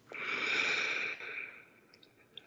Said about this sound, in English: In fact, let's choose to take a deep breath together in through the nose, out through the mouth. Beautiful. Take another deep breath.